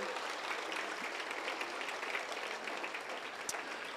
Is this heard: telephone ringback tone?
no